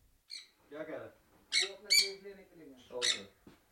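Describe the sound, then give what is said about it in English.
Loud, harsh squawks of exotic birds kept for sale by a small business in the Bronx burst out in a rapid irregular series, several shrill calls, with a voice murmuring faintly underneath. “He's the co owner of a small business selling exotic animals like these birds.”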